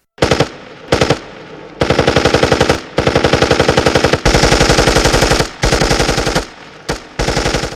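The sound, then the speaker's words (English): Machine gun fire in the WVIA TV dramatization Gino Merli, The Healing Hero, loud, starting with two short bursts, then long sustained rapid-fire volleys separated by brief pauses. No voices are heard. “And as soon as they had passed, I open fire.”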